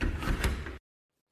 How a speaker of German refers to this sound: Die Türe hat beidseitig zwei Griffe. Man drückt links und zieht rechts, um die Fenstertüre zu schließen.